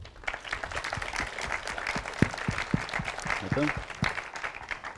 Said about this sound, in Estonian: suurepärane, siit siis tõmbame kokku ja suur aplaus eh,